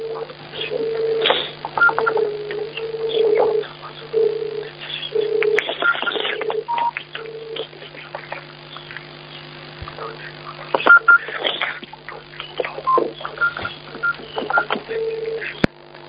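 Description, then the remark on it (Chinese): Telephone tones on a phone call in which the caller hangs up without speaking: a run of short electronic beeps in irregular bursts, steady in pitch, over a constant low line hum with muffled, indistinct voice-like noise throughout. “我们打通电话都不好好的珍惜的”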